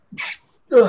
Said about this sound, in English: sorry about that. Bless you.